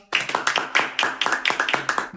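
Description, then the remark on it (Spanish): A short burst of applause, with sharp, fairly regular claps at a steady beat, loud and prominent, rising over a faint murmur in the background. “Un fuerte aplauso, por favor, para nuestra C de cambio.”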